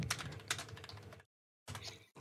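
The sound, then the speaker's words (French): Quick, soft keyboard typing of a chat message in a rapid stream of clicks, pausing briefly to silence before resuming in short bursts; no voices. “Donc là, elle m'entend pas, mais je lui ai mis un message, donc normalement.”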